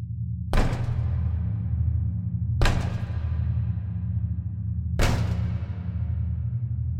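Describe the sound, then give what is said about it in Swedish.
Three heavy, slow knocks, evenly spaced about two seconds apart, each ringing out briefly over a steady low hum, with no voices present. “Nummer två. Knackandet.”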